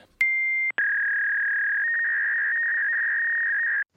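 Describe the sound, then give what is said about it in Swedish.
An outgoing phone call signal: a brief high electronic beep, then after a tiny gap one long, steady, high-pitched tone lasting about three seconds, loud and alone with no voices. “Då ringer vi honom nu.”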